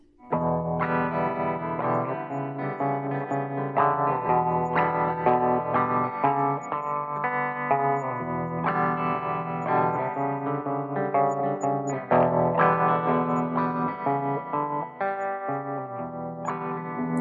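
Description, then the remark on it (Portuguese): A song's instrumental opening plays alone: rich, sustained chords with an effects-laden, slightly echoing tone, shifting every couple of seconds at a steady, full loudness, with no voices. “E agora é hora de música aqui no programa”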